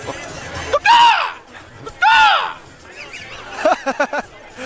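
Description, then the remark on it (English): Someone imitates an Iowa Hawkeye with two loud, screechy cries, each sweeping up and falling away, followed by a few short bursts of laughter. “What what's your impression of an Iowa oh, Hawkeye?”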